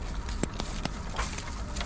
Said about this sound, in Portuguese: Os dois guardas que estavam ali na porta do calabouço vão até sua cela, abrem, tiram os grilhões dos seus pulsos.